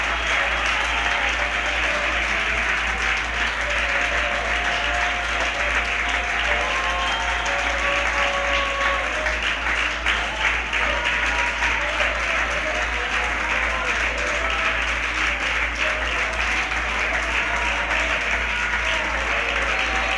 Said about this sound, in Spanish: Cuando yo concluya, usted termine con estos dos aplausos.